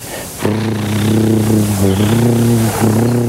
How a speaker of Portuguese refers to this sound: O programa gravou o som dos curimbatás, o chamado Canto da Piracema. Vamos ouvir um trechinho dessa reportagem lá de 92. E eles vibram essa bexiga natatória e produzem sons.